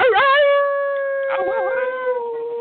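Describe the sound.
A man's voice imitates a long, sustained howl, wavering at the start and then holding a steady, drawn-out tone that gradually softens.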